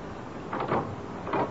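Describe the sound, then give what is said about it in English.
A few dull, muffled knocks on Mr. W. W. Norton's apartment door, 3A, a quick pair and then another after a short pause, over a faint steady hiss with no voices. “Here's one of them now knocking on Mr. W. W. Norton's door, 3A.”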